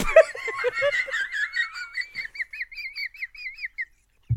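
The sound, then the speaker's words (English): A voice imitates a bird call with a loud, warbling whistle that trills up and down in quick repeated chirps for several seconds, after a brief giggle at the start. “Nice bird.”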